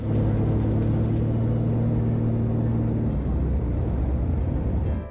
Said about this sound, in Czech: Vše končí efektním průletem těsně nad letištní plochou.